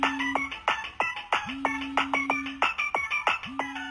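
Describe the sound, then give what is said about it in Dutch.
A ringtone-like hardstyle version of a song: bright, beepy synthesized melody over punchy electronic kicks with pitch-dropping sweeps, a fast hard-dance beat playing loudly without vocals. “het is dus een soort van ringtoon. Het is een soort van eh, hardstyle versie van …”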